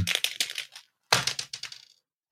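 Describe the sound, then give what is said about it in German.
Two quick bursts of hard clattering, a twenty-sided die (D20) tumbling and rattling across a hard surface twice in a row, once for each of two players, landing on 14 and 17, each roll ending in a few lighter taps. No voices. “Dann würfel ich jetzt für dich”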